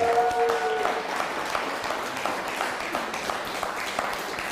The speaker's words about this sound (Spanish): un fuerte aplauso hasta Florida.